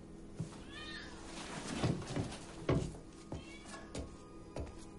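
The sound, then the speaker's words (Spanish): A pair of cats prowling a very untidy, almost abandoned room meow in a loose, overlapping series of moderately loud, rising-and-falling cries, a few drawn out into longer wails, with a faint background hum and no talking. “La estancia está muy desordenada, casi abandonada, y un par de gatos merodean el lugar.”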